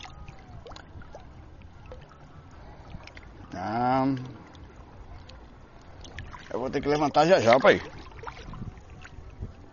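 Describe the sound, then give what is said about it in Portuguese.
Water rushes and churns steadily through a canal, rising fast and pushing strongly, a continuous textured wash under the whole recording, while a man speaks briefly twice over it. “Inclusive aqui é um canal, a água passa a me empurrar muito forte.”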